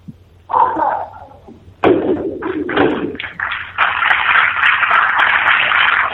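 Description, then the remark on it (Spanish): The knocker of the Jesús Cautivo procession float sounds the first call to lift with a sharp knock inside the parish church of Santa Isabel in Jaén, followed by several lighter taps and then a dense, steady wash of crowd noise filling the rest. “Se va a dar la primera llamada, compañero.”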